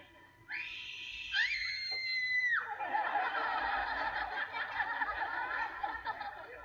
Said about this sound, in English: I didn't even see her mouth open to scream.